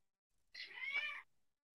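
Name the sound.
cat meowing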